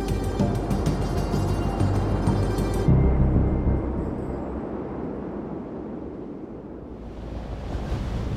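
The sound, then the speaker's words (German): Strong wind roars and buffets steadily, tugging at a paraglider's wing during a paragliding championship among mountains in Greece, a dense low rumble with a hissing rush that eases briefly midway and then swells again, with no voices. “So sehr zerrt der Wind an ihrem Schirm.”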